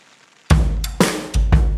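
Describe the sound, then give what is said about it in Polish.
Rain drums steadily during a storm while strong gusts of wind roar in, loud, after a brief quiet hiss. Several forceful bursts follow one another quickly, with no voices. “Co chwila słychać było gwałtowne porywy wiatru i bębnienie kropel deszczu.”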